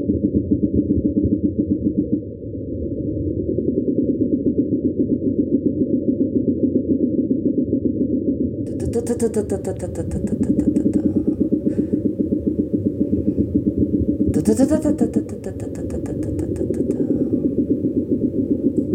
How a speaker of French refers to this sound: Euh, l'ophidion, qui est un serpent de mer. Hein. Là, on a un son grave hein, qui est percussif, hein, comme un roulement de timbales euh, dans les profondeurs.